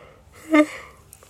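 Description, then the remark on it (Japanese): A single short, voiced yawn rises and fades quickly, with quiet room tone around it and no talking. “あくびすいません”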